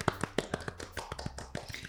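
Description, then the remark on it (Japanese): A quick flurry of hand claps celebrating a 100th broadcast, a dozen or so sharp slaps in an uneven rhythm, fairly crisp with no talking over them. “拍手をしながらねちょっとドキドキですよねいや打ち震えてるよね打ち震えてるうん”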